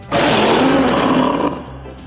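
A loud, gritty monster roar of the hideous giant multilingual emasculator of Credo, a Rip Jarvis sound effect, bursts in and holds for over a second, broad and rasping with a growling undertone, then fades into a lower rumbling tail.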